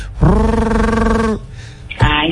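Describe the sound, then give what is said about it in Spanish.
A voice imitates the exhaust roar of a Civic car with a modified muffler: one loud, sustained droning growl lasting over a second, then a shorter second burst after a brief pause. “Era una Civi y me encantaba el sonido, yo no vi otra cosa.”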